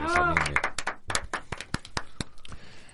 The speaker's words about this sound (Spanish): A ver, vamos a darle la bienvenida con un aplauso